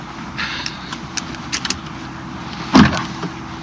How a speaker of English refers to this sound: Power door locks, standard, of course.